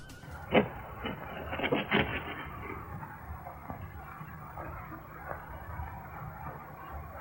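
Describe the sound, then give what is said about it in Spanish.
Light scratching on the other side of a door while rain and thunder continue: a few light, scratchy bursts cluster near the start, muffled, then fade to fainter scrapes over a steady low background hiss. “Nada ha cambiado hasta que unos ligeros rasguños se escuchan al otro lado de la puerta.”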